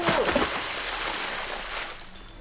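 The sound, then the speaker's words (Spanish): A splash as someone plunges into the crystal-clear water of a cenote, a broad burst of spray that settles into steady rushing and sloshing, with a brief voice at the start. “¡Uy! Ya me salpicó.”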